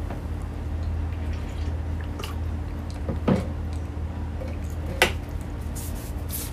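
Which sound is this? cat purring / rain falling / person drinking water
person drinking water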